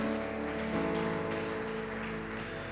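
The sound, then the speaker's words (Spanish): An audience applauding God steadily, a dense, continuous wash of many clapping hands, with sustained musical tones humming beneath it throughout. “Oh, dale un fuerte aplauso a nuestro amado Dios.”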